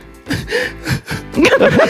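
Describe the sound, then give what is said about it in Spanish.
A man imitates sad crying while actually laughing, with short, wavering whimpers and sobbing bursts that rise and fall, broken by brief catches of breath. “Ahora, sí se escucha llorando, pero para los que no lo ven, él está riéndose realmente.”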